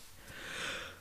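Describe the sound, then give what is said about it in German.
A single soft, breathy sneeze with a hissing, muffled burst of air that swells and fades within a second, not loud, with no talking around it. “Gesundheit.”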